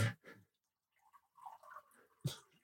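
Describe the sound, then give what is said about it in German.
Water being poured into a glass by someone serving themselves and trying not to make unnecessary noise: a short, uneven trickle and gurgle framed by a few sharp clinks and knocks, fairly quiet, with no one talking. “Ich habe ganz konzentriert versucht, mir ein Glas Wasser einzuschütten, ohne irgendwie unnötig Geräusche zu machen,”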